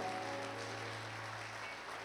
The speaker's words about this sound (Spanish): No, ahí, ahí no era un amén, ahí era un aplauso.